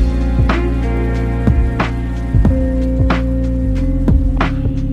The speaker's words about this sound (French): Euh, voilà, et il se met à pleuvoir.